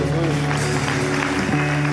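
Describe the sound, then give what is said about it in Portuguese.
A crowd claps steadily and densely for two seconds, the applause blending with sustained, humming musical tones underneath. “Forte aplauso para ele aí, Jesus.”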